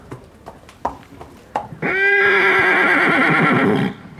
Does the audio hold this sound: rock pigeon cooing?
no